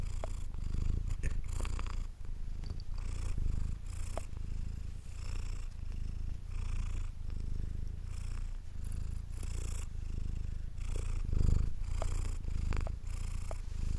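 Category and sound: animal, domestic cat purring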